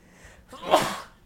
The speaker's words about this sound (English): Bless you.